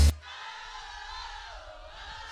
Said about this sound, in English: Ladies, if you brush your teeth before you came out tonight, sing this out loud. One, two, three, go!